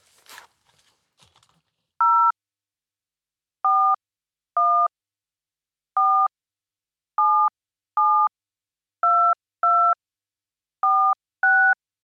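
A phone number is keyed in: ten short, clear touch-tone beeps at slightly uneven intervals, steady in loudness, following a few faint handling clicks at the start.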